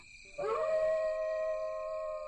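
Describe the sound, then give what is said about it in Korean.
A single long wolf howl rises quickly and then holds a steady, sustained tone, clear, with faint low rumble beneath and no talking, on a mountain as night falls. “어휴, 이거 늑대까지 울고 이게 참 으스스하구만.”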